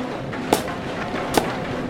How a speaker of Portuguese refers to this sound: Espero que você não tente fazer isso com outros caras. Você pode acabar levando uma grande surra por esmagar o cigarro deles.